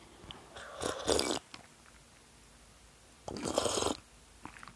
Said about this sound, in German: Oh, jetzt auch nicht mehr nur schlürfen, sondern auch was richtig was trinken wenn man sich hier den Mund fusselig labert.